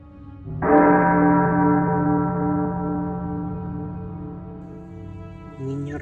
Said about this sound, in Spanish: Se cuenta que cuando eran tiempos de saqueo en el cementerio, nunca se atrevieron a tocar su nicho, y que cuando descargaron su ataúd, se oyeron al unísono todas las campanas de la iglesia de Lima.